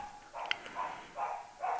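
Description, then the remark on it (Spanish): The speaker's dog barks several times in a rough, steady series of short, muffled bursts. “Hasta el perro está ladrando en desaprobación de.”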